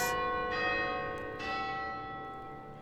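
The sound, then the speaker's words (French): Loud church bells of a campanile finish striking noon, with three strong strikes about a second apart whose rich, sustained tones overlap and hang in the air. No voices are heard. “Derrière elle, assourdissante, les cloches du campanile finissent de sonner midi.”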